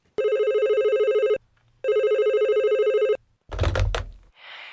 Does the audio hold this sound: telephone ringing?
yes